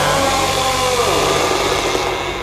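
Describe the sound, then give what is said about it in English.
A chainsaw engine runs loud and steady with a high buzzing whine, its pitch dipping and rising briefly as it's revved to keep it from jamming. No voices. “Sorry, guys, I have to keep it torqued or it jams.”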